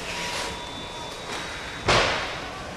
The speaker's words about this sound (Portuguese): Este é o som do armazém onde já se classificam e embalam os ovos